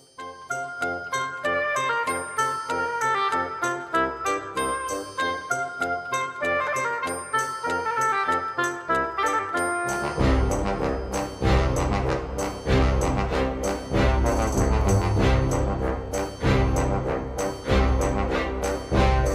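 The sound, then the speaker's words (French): A modern instrumental remake of a video game tune: a bright, chiming melody plays alone for about ten seconds, then a full band with deep bass and driving drums kicks in, loud and steady. “Alors là, c'est vraiment euh, le remix hein, avec les instruments actuels hein”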